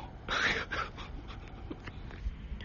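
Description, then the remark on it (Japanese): A person's voice imitates a dog barking, letting out a short, loud yapping bark near the start, followed by softer, scattered breathy noises. “今のが、じじいのマックス犬でございましたけども”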